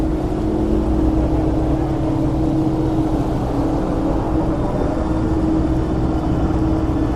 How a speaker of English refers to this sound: Oh, so many helicopters, guys. Can't hear properly.